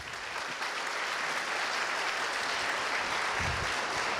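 A crowd applauds for Jesus at a preacher's call, clapping steadily for about four seconds, a dense, even wash of many hands clapping with no voices rising above it.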